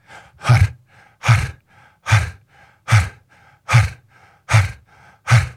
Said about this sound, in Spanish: Ah, pero también tienen otra respiración que se llama respiración HAR. Y es una repetición. repetición. Y lo hace así.